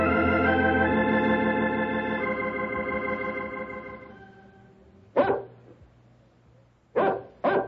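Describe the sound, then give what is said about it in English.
A dog whimpers in a long, drawn-out whine that slowly fades, then lets out three sharp barks, the last two in quick succession, with no one talking. “You'd better not shoot that dog again, unless he's in the act of attacking your horses or causing other damage.”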